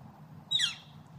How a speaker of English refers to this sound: I don't know what kind of bird that is, but that's one of those birds that's been. Uh, a lot of the birds from from back when are not here as much, but that is one of the ones that's kind of stuck around.